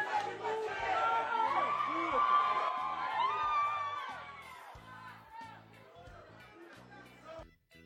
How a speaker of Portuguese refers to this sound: Isso aí é barra shopping mesmo, isso aí é barra shopping torcedores lá fazer manifestação.